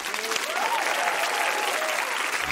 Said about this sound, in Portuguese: Vamos aplaudir o doutor Daniel Becker.